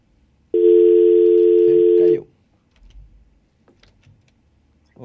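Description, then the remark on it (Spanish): A loud, steady telephone line tone from an incoming call sounds for about a second and a half, then cuts off, followed by faint clicks and low background noise, with a brief voice starting at the end. “aquí, aquí tenemos una llamadita.”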